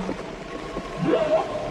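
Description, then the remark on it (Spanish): Eerie whale calls, a few rising, wavering moans that swell near the end, set over a low watery rumble like deep ocean ambience. No one speaks. “Fue la gran ballena sorda que acabó con la función”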